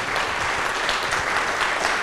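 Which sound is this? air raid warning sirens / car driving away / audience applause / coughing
audience applause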